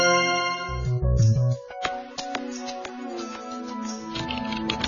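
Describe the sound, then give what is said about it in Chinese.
Irregular, crisp clicks of typing on a computer keyboard, a handful of taps spaced unevenly, playing over sustained musical tones and a soft low hum, with no voices. “当你轻敲键盘， 当你轻敲键盘， 点鼠标， 轻点鼠标，”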